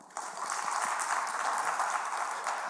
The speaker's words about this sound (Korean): 박수 한번 줄까요?